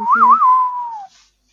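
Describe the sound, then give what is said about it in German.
A person whistles a brief melodic phrase from a film soundtrack: a couple of quick wavering notes, then one long held tone that slides downward and fades, with no talking. “Aber mir ist aufgefallen, ich sollte nicht pfeifen. Das Mikrofon ist irgendwie nicht dafür ausgelegt, dass ich pfeife. Das klingt total schrecklich.”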